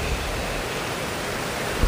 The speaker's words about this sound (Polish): No szumi, bo jesteśmy nad szumami praktycznie, chociaż nie na Tanwi, a nad rzeką Sopot, ale teraz są tutaj wodospady i będzie nam szumiało.